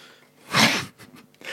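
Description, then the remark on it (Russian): A single sharp, breathy nasal burst, like a sneeze or hard sniffle from a stuffed nose, followed by a few faint snuffling breaths. No one speaks. “Забрызгай нос и высморкайся. Чтобы звука не было.”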